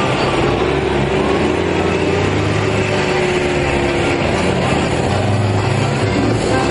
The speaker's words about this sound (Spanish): Por el campo, camiones y soldados rusos de El Dragón avanzan hacia el orfanato.